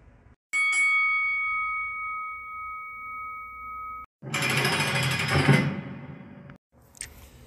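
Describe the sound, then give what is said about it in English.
A bell rings with a clear, sustained tone for several seconds, then gives way to a loud, harsh rattling clatter that cuts off abruptly. No one speaks. “about to go ring the bell.”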